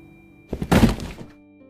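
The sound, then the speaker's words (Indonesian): A thrown cardboard box lands in a large transit room with a hollow thunk, a quick couple of soft impacts followed by a brief scraping rustle as it settles, then quiet. “Nah saat lagi asik-asik ngetik, tiba-tiba aja ada yang ngelempar kardus”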